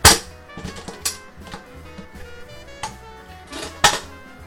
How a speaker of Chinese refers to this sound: 糖化完成，大概是六十四度左右，六十分钟。现在开锅。